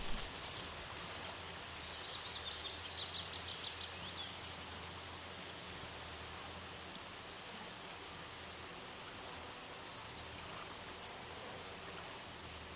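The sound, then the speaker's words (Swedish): Faint birdsong in a meadow, a few short chirping phrases early on and again near the end, over a steady outdoor hiss like insects or moving air. “Trädens rasslande i vinden. Fåglarnas sång och doften från alla blommor gör dig avslappnad.”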